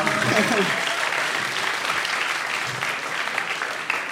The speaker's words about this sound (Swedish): Applådera för sköldpaddan.